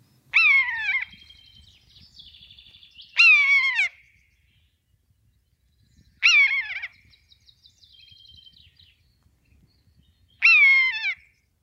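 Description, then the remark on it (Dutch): A common buzzard gives four loud, drawn-out mewing calls that slide downward in pitch, spaced a few seconds apart, with fainter answering calls in between and no talking, heard in Gelderland, the Netherlands. “Soms hoor ik mijn wasmachine en dan denk ik aan, aan een buizerd of aan welke roofvogel dan ook.”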